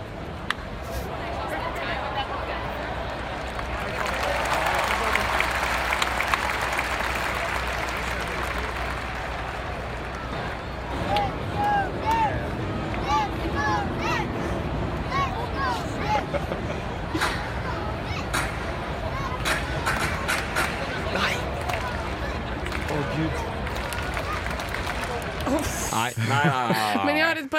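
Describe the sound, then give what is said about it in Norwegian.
A crowd at a baseball game in a New York stadium murmurs steadily throughout, with scattered shouts, whistles and sharp knocks rising above the wash of voices, briefly swelling louder early on before settling into a looser hum. “Nå skal vi over til en baseballkamp fra New York.”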